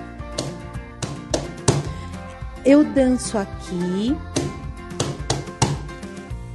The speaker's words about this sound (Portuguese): Aí você faz é, essas palmas para cada lado do corpo. Então você bate quatro palmas para um lado, quatro palmas para o outro lado do corpo, sabe? Com as mãos assim, você bate para um lado, bate para o outro.